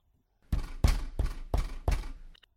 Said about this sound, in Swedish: Han skyndade på så snabbt han kunde och till slut var han på grannens tomt. Han knackade på.